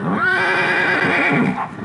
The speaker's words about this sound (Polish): zatrzymać konia. O, no, próba dźwięku tutaj była właśnie.